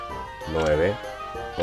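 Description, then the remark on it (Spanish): A sheep bleats in a loud, wavering cry lasting about half a second, then a second bleat starts just as the sound ends, over a steady background hum, during a sheep-counting game. “Bueno, yo conté 26 ovejas, vamos a ver qué pasa.”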